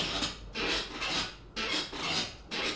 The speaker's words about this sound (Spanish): hoy tenemos ruidito de silla que hace rato no teníamos